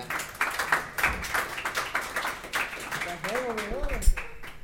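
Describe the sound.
Audience applause welcoming a musician coming up to play, a dense crackle of many hands clapping steadily throughout, with a voice briefly calling out over the clapping toward the end.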